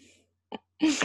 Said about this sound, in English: that was the cat just knocked off something.